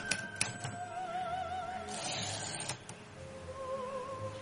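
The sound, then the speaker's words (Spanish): Typewriter keys clack in irregular bursts as Cesario Mosquera types pages transcribing conversations, with sharp mechanical strikes over a steady hum and a wavering tone in the background, moderately loud, no voices. “Cesario Mosquera rellenó muchas hojas mecanografiadas con la transcripción de sus conversaciones con Graña.”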